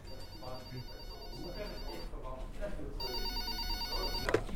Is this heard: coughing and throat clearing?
no